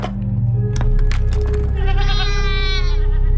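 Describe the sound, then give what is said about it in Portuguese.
A single goat bleats loudly with a long, quavering cry over a steady low rumble, with a few sharp knocks just before it. “Depois de andar, eles sentiram falta de cabras.”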